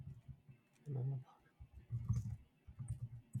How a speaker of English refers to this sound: I, am just typing. What are the most popular MMO MMOs MMORPGs?